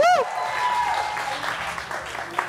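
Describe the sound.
An audience claps in a steady, dense wash of applause lasting a couple of seconds, with a brief bright vocal whoop at the start and a few scattered voices underneath.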